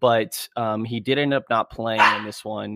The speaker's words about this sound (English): And excuse my dogs in the background.